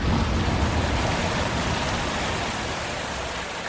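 A steady, dense rush of cascading water roars continuously, like standing beneath a heavy waterfall, with no voices and no break in the loud, even flow.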